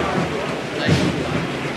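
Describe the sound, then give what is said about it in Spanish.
Heavy rain pours down outdoors during the procession of the Rocío palio near the Puerta de la Magdalena and Plaza del Salvador, a steady, dense, loud hiss that fills the scene without pause, with a faint murmur of voices beneath it. “Uh, como llueve. Llueve fuerte, llueve fuerte, sí.”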